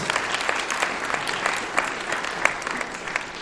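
A crowd applauds steadily, a dense wash of many hands clapping with scattered sharper claps standing out, sustained at an even moderate level throughout without any talking.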